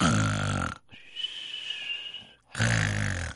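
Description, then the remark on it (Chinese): A voice imitates a student snoring after falling asleep in physics class: two loud, rough, rattling snorts with a thin, whistling exhale between them, each snort under a second long. “还打呼噜，老师看到，老师也听到了，这还得了吗？”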